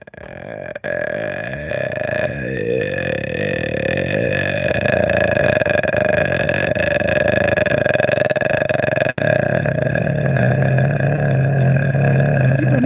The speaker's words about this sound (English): I'm actually doing the zip up on a sleeping bag really slowly.